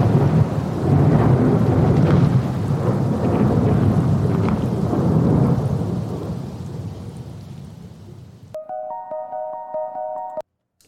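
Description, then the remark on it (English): Loud, rolling thunder from a played soundtrack rumbles continuously with rain for about eight seconds, then fades as a short, steady musical tone sounds briefly before cutting off. No one speaks. “the … soundtrack was different from the …, and that was Shazammed”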